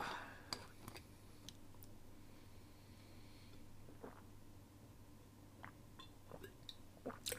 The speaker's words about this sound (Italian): Poi, mo devo ribermi l'acqua. Ah. Fatemi bere un po' d'acqua perché sennò...